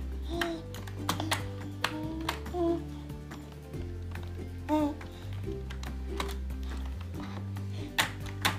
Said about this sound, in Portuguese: Como é que digita aí no teclado? você tá digitando o que aí?